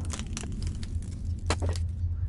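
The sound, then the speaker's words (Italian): Wooden planks being broken: a few sharp, splintering cracks arrive in irregular bursts, the loudest snapping near the end, over a steady low rumble. “rompiamo queste assi di legno”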